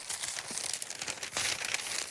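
Continuous paper rustling and crinkling as pages of the newspaper Repubblica are turned to page 8, with a few sharper crackles. Nobody speaks.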